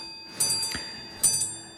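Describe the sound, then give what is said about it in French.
Two crisp clicks from a pendulum clock beating and marking the seconds, spaced a little under a second apart with a fainter tick in between, against a quiet, faint hum. “La pendule bat et marque les secondes, donne l'heure et le temps vrai et le temps du soleil.”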